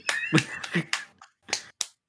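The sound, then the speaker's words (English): Scattered hand claps, about six sharp percussive smacks at an uneven pace over two seconds, some louder than others, with no voices. “I can hear you clapping out there.”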